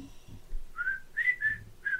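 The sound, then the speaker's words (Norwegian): A short whistled tune of four clear, sustained notes in a distinctive melodic pattern, prominent over faint low background rumble, with no talking; a TV series character's signature whistle, heard as he comes around a corner with a shotgun. “Den der plystringa når han kommer rundt i serien der, kommer rundt hjørnet med, med shotgun.”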